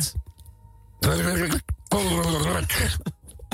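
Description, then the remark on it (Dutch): Two loud, wet bursts of bubbling as a voice says "Benedict Cumberbatch" into a small bowl of water, each lasting about a second with a short gap between. The bursts are gurgling with a wobbling tone underneath, tested to see whether it sounds like a fart in a bath. “of dat dan klinkt als een scheet in een bad.”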